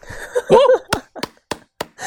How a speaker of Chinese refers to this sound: 鼓掌